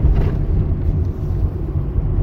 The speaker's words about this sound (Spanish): Siento que traigo una pinche ventana abierta o será mi ano abierto, no sé, pero se oye un pinche... Se oye la calle mucho.